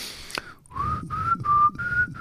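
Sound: whistled imitation of birdsong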